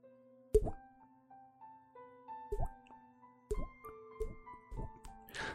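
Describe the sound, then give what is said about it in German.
Five hollow, resonant water-drop plops made with the mouth by flicking the cheek, close and fairly loud, at uneven intervals with no talking. “Ich schnippe mir an die Backe und puste dann oder drücke mit der Zunge die Luft raus. Und das ergibt dann diesen dieses Tropfengeräusch.”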